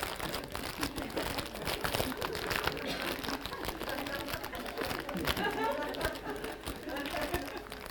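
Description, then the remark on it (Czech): Steady crinkling and rustling of a plastic bag of 'rybičky' (little fish) snacks being handled and opened, continuing for several seconds with faint background chatter. “Já si tady dám takhle ty rybičky. A já je nechám v tom sáčku, nicméně si, tady roz, si to tady dám do té zcela sterilní kapsičky, kterou jsem vymejval před akcí.”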